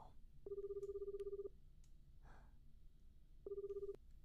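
An old-style analog telephone ringtone rings twice inside a stuck elevator, a steady electronic trill lasting about a second, then a shorter second ring after a pause, clear over a low background hum.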